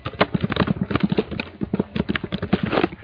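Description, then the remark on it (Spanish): Rapid, uneven keyboard typing heard over an unmuted microphone: a dense stream of sharp clicking keystrokes that runs steadily for about three seconds, fairly loud and with no talking over it. “¿Quién está golpeando teclado, hombre?”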